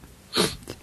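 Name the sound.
sneeze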